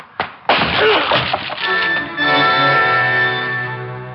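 The locked plywood door of Dr. Van Arthur's office is smashed open with a man's head: a sharp thwack, then a heavier splintering crash, followed by clattering debris and a lingering resonant ring that slowly fades. No one speaks.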